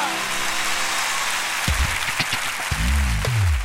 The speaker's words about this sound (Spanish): ¡Viva Nuestra Señora de Aparecida! Fuerte el aplauso para María.